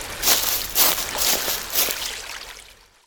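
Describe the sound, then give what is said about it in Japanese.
Flowing river water hisses steadily, with soft rhythmic splashy surges about every half second, then fades out near the end. No one speaks. “川だとりあえずここで休憩するか”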